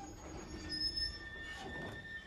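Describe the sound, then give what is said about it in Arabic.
A train heading to Kobe rolls steadily along the rails, its low rumble overlaid with thin, sustained metallic wheel squeals, continuous throughout with no voices. “وهذا هو السبب وراء ركوبه القطار إلى كوبي”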